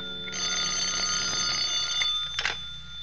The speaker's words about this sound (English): Until about one o'clock in the morning when the telephone started having hysterics on my night table.